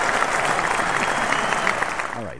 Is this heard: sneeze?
no